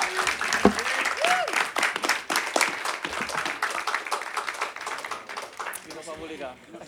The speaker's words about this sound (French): Merci beaucoup. on peut les applaudir bien bien fort.